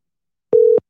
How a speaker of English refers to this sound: Can you guys hear the phone? Is it ringing?